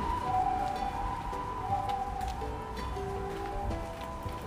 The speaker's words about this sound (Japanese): あすごい救急車がね